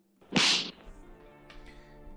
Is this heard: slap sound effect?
yes